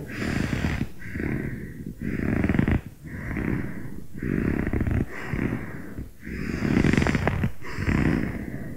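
Loud breathing in a repeating pattern: three short quick breaths followed by a fourth longer, deeper forced breath, with no talking and brief pauses between each.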